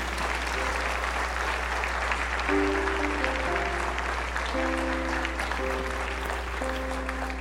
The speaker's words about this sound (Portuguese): Eu queria saber se tem alguém aqui que veio aqui pela primeira vez. Quer bater palmas? Pode, pode ir.